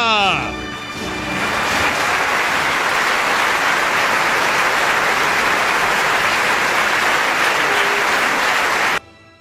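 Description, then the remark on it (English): A brief voice at the start gives way to a loud, steady wash of crowd applause played as a sound effect that keeps up evenly for about eight seconds, then cuts off abruptly. “you can do better than that with the sound effects, please.”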